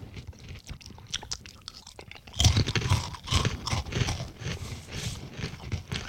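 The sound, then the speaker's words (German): Crisp crunching of dry cheese and tomato salsa flavored snack crackers being chewed, a rapid series of brittle cracks that grows louder and denser partway through, with no talking. “Die knuspern sehr schön.”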